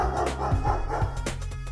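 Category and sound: animal, dog barking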